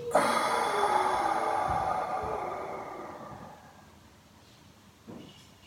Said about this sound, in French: Prendre une inspiration par le nez. Expirer par la bouche.